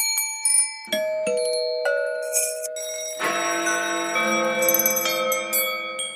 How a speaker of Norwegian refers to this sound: This work consists of trying to ring all of the bells in the for three minutes, as loudly and as quickly as possible.